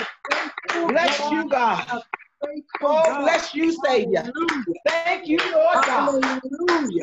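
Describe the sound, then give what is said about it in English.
An audience claps its hands in steady applause, giving God a hand of praise, while a man speaks loudly and fervently over it, the claps running beneath his voice almost the whole way through. “Give God a hand Ooh.”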